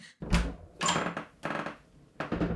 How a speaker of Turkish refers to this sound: Hmm, kapıyı açayım en iyisi.